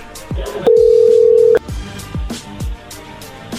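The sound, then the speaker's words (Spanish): A phone redialing a call that was cut off: one steady, mid-pitched telephone tone holds for about a second, set against a backdrop of rhythmic, thumping beats with no talking. “A ver, márquenle de nuevo. Ya, muérvanle. Vuélvanle a Ok, ahí se está marcando.”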